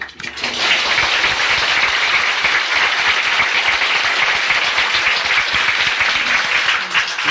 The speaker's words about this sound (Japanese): 一区切りもう一遍素晴らしい講演をしてくださった、あの、吉井先生に感謝の拍手を